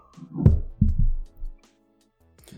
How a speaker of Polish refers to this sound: Nie to, że rzucam tym kaps kapslem, że go tak słychać bardzo, ale no po prostu brakuje trzeciej ręki, bo w jednej mam piwo, w drugiej mam otwieracz, no a trzecia by się przydała, żeby złapać kapsel.